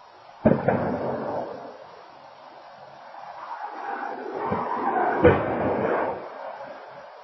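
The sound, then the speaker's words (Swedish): Two sharp, heavy bangs about five seconds apart as a speeding car crashes, recorded by a house's surveillance camera, with a low rumbling, roaring noise swelling between them and trailing off afterward. No one speaks. “vi kunde höra tydligt två stycken smällar och sen en större smäll.”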